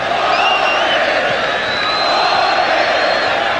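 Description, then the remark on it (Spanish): A dense stadium crowd of Deporte Cristal football fans roars continuously with wave chants during a match against Universitario, many voices shouting and cheering together in a steady, loud wash of noise with occasional higher whoops rising above it. “Gritos de ola por los hinchas de Deporte Cristal.”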